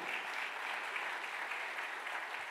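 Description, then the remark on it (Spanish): An audience bursts into loud, sustained applause: dense, steady clapping from many hands that fills the whole moment without pause, with no voices standing out above it. “¿Cuánto le dan un aplauso fuerte?”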